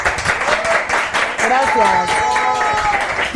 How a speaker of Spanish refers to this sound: Bueno, aplausos. Muchas gracias. Muchas gracias.